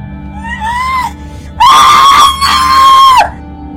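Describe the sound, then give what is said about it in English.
A person screams loudly, a rising wail that swells into a long, piercing shriek lasting well over a second, with a brief break mid-scream before it cuts off. “Why are you screaming when I haven't even cut you yet?”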